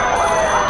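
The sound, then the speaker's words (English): A loud emergency siren wails with a rising, wavering tone over a thick wash of steady background noise, heard briefly. “and as the day goes on, and there's sirens and there's this and there's.”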